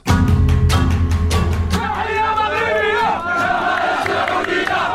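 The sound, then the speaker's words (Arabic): Arab football fans chant loudly in celebration of Morocco's win, many voices merging into a sustained roar, with a burst of sharp rhythmic claps at the start before the sung chant rises and carries on throughout. “فرحنا بالسعودية اليوم نفرح بالمغرب المغرب يفوز كلنا المغرب تونس تفوز كلنا تونس لكن فرحتنا اليوم المغرب بهذه الكلمات اختصرت الجماهير العربيه اعواما طويله من النسيان نحو المصير المشترك هتفت بصوت عال”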